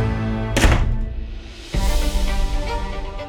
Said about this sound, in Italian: Sbatte la porta alle spalle.